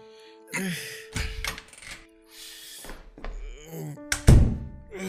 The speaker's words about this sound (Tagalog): Bubuksan ko lang tong pinto para makapasok na tayo sa kwarto mo.